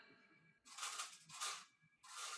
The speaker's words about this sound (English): What is that? That is the cat food feeder. Sorry. Oh, you got automatic cat food. Yeah, we got automatic cat food.